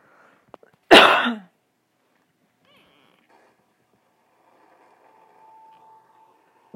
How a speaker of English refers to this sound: Excuse me, I coughed. My bad.